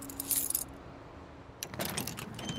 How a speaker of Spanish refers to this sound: Y encima no sé dónde he dejado las llaves. A ver. Ah, mira, aquí están.